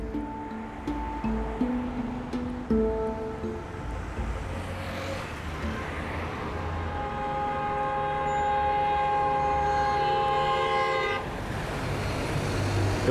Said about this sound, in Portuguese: tô aqui no meio da confusão do trânsito do Rio de Janeiro. Na verdade, esse som que você tá ouvindo podia ser gravado em qualquer lugar da cidade, né? Mas eu tô aqui na Rua Jardim Botânico, na esquina com a Rua Doutor Neves da Rocha